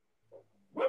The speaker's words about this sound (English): Sorry, sorry, that's my dog barking.